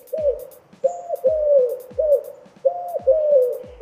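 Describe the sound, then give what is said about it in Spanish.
Pigeons perched on a ledge cooing, a steady series of low, throaty, rolling coos repeating every second or so, some overlapping, with no voices present. “El arrullo de las palomas paradas en una cornisa.”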